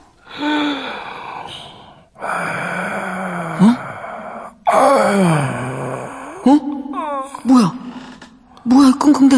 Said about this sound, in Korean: 숨소리 뭐야? 어, 어, 어, 왼쪽에서 들리는 것 같은데?